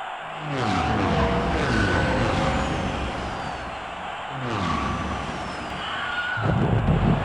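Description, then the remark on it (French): A podracer's racing engine whines and sweeps through changing pitches while it skids and screeches off a turn, then a heavy rumbling crash bursts in near the end as it crashes, loud with no one speaking. “Il a bien raté son virage celui-là. Ouais, il risque pas de repartir tout de suite.”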